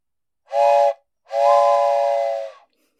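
A steam train whistle sounds twice, a short toot followed by a longer sustained blast, loud with a breathy hiss over its layered tones, with no talking.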